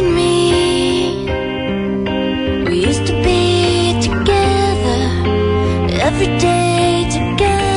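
A slow, emotional 1990s pop-rock ballad that is widely known plays steadily at full volume, with sustained guitar chords, a warm bass line and occasional drum accents, the band sounding full throughout.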